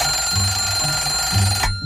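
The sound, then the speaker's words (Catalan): An alarm clock rings continuously, marking the end of 20 minutes, with a steady, loud electronic tone and a pulsing low buzz beneath it, cutting off abruptly near the end. No one speaks. “Ja han passat els 20 minuts? Que ràpid, tu.”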